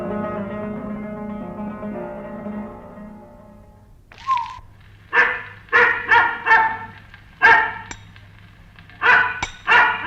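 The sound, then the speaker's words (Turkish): A dog named Garip barks repeatedly, around eight loud sharp barks in uneven bursts, after a few seconds of a steady droning tone with no voices. “Garip de havlayıp duruyor.”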